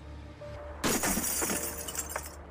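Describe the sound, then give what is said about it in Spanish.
A water cannon fires a single pressurized water round instead of a gunpowder one: an abrupt, loud blast that erupts after a short quiet lead-in and sprays into a harsh, shattering hiss for over a second before cutting off. “Por eso activaron el interruptor del cañón de agua que dispara una bala acuática a presión, en lugar de una de pólvora que podría haber generado alguna chispa.”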